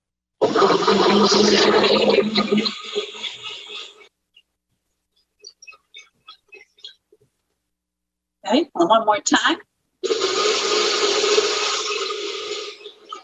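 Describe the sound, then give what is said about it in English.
A blender mixing a protein smoothie with protein powder roars loudly for a few seconds, winds down, then is pulsed in short bursts before running steadily again; a voice speaks briefly in a quiet gap. “Okay, so we put it in here and I'm going to start it. So you might want to plug your ears for a moment.”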